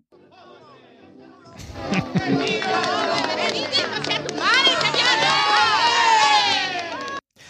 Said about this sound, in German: Den mag ich am liebsten, das ist der Schnipsel G, weil es da diese kurze Steigerung der Tuba gibt im Hintergrund. Und dann aber, dass für alle diese Schnipsel so typische Ole auch stattfindet.